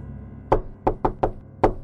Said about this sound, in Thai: เจ้าหมาป่าก็มาถึงบ้านน้องเล็กมาเคาะประตู